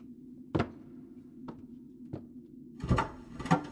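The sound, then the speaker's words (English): A heavy chair, knocked over by a man moving about in the room above, topples onto a wooden floor: a few scattered knocks followed by a louder, clattering thud near the end, heard against a steady low hum with no voices. “He must have knocked over a chair or something. A heavy chair, from the sound of it.”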